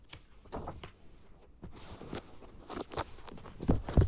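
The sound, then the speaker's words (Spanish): Children knock on doors and then run away: a scatter of sharp knocks and quick, hurried footsteps patter, ending in a couple of heavier thumps. No one speaks. “Golpean las puertas los chicos y salen corriendo y se esconden detrás de los arbustos.”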